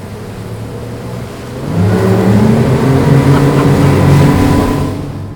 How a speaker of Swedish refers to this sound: Nu ska vi ut och åka båt. Ja, alla med då.